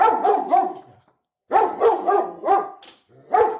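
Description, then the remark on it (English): A dog named Killer barks excitedly at the front door, loud mid-pitched barks in quick clusters of two or three, separated by brief pauses. No one speaks. “Somebody better get to the door before killer eats him.”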